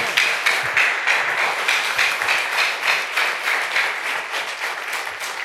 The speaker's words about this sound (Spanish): Ahora sí, dele fuertes aplausos al Señor.